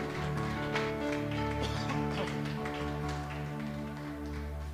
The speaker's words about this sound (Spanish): Vamos a darle un fuerte aplauso a nuestro Dios.